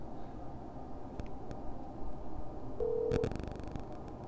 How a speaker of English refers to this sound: I don't know if you guys can hear this or not. The speakerphone's not working. It's ringing. Can you hear it?